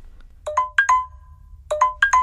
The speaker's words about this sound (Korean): 아, 왜 또 전화야.